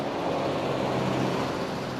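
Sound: car driving up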